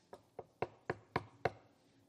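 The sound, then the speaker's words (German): Six sharp knocks in a quick, steady rhythm, like knuckles rapping on a wooden door, as a friend knocks at a friend's door, the last few slightly harder, with no voices. “Was hat dieser Freund gemacht, als er beim Freund klopft?”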